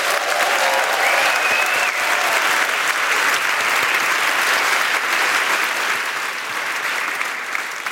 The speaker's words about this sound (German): Applaus